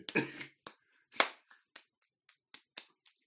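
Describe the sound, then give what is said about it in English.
Sharp slaps of hands meeting in a dap: a loud smack, another forceful one a second later, then a scattering of lighter, quicker hand pats trailing off, with no talking. “No, I slapped hard enough that they should be able to hear.”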